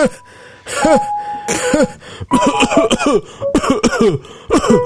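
A series of loud, close coughs and throat clearing, several bursts in quick succession with brief gaps, some overlapping as if more than one person is hacking at once.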